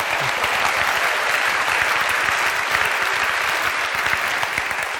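Sustained audience applause, a dense, steady wash of many hands clapping at an even loudness for the full length, with no voices standing out above it.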